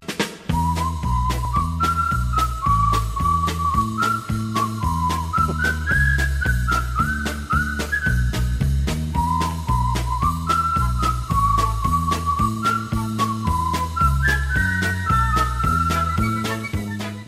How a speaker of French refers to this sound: Donc, avant, avant de passer à notre prochain invité, on va écouter peut-être un petit succès souvenir.